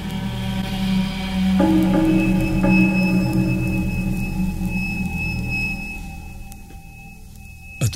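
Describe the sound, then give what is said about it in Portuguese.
A doorbell rings twice in quick succession, its bright electric tones lingering and slowly fading over a steady low hum, with no talking. “Dois toques de campainha.”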